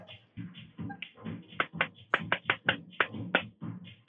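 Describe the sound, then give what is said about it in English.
Someone taps on something: about a dozen sharp, crisp knocks in a loose, uneven rhythm, some bunched close together, over a soft low rumble with no talking. “I hope that you can hear me tapping something.”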